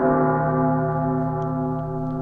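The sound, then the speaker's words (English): The St. James Catholic Church bell tolls, ringing since midnight because a person's parachute is caught around the bell's tongue; its deep, rich ring hangs in the air and slowly fades as the resonant hum lingers. No voices, just the bell's sustained tone. “Yeah, the St. James Catholic Church bell has been tolling since midnight this morning and is still going.”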